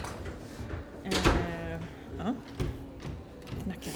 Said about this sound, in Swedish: Knackar hårt.